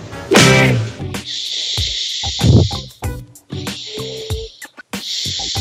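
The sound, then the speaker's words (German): Loud breathing with long hissing exhales repeating every second or two, mixed with a few short voiced grunts and mouth noises in between. “Wer atmet denn da so laut?”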